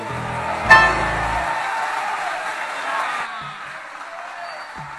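An audience in Buenos Aires breaks into applause after a tango song ends, a dense crackle of clapping with a sharp accent near the start, holding steady before thinning out toward the end.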